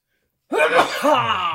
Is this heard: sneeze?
yes